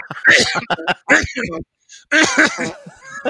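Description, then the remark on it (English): A voice makes a few forced, exaggerated coughing and throat-clearing noises in short bursts, with a brief pause in the middle, a deliberate fake cough mixed with chuckling, done to cover a fart. “Do you ever do the uh, the old fart and cough, and you got to cover the fart by going?”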